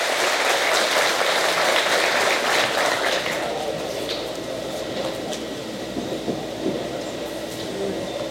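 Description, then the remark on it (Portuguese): An audience breaks into sustained applause for a patrol, a dense wash of clapping that is loudest at the start and eases off after a few seconds while continuing steadily to the end. “Senhores, dá salva de palmas para a patrulha para dar um bote aí.”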